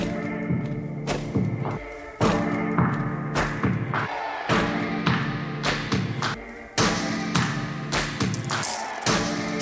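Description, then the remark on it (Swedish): The intro beat of a Swedish rap song plays on its own, with punchy, evenly spaced drum hits over a dense, sustained instrumental backing. No vocals come in; the loop stays loud and steady throughout. “På ämnet så släpptes det en ny låt i veckan från den underbara duon”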